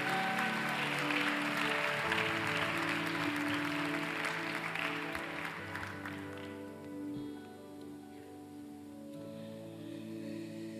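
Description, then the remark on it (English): A church audience claps steadily for several seconds over soft sustained keyboard music, applauding church leaders as they are dismissed, the applause fading away midway while the music carries on alone. “Now clap for them one more time as they're dismissed.”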